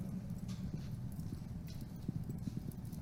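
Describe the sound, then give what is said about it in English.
Heavy wrought iron doors to the tomb chapel of a shrine being opened. The doors bear wrought iron roses and were made by a local artist from New Braunfels. A steady series of low, hollow knocks and clanks repeats irregularly over a few seconds, moderately loud and without any talking. “Okay, here I'm going to open the doors uh, to the uh, tomb chapel of the shrine.”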